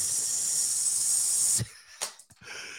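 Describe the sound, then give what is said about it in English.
A voice mimics a Fourth of July firecracker, lit with a lighter, fizzling out: a steady, bright hissing "psst" lasting over a second, then breaking off into a few short, sputtering breathy puffs. “You get your lighter. You get your firecracker. This shit about to be litty. Psst.”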